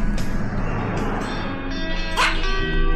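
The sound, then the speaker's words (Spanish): A small dog gives a few short, high-pitched yips and barks, spaced out over a steady low rumble like an idling vehicle. “¡Ay, un perrito! ¡Qué bello!”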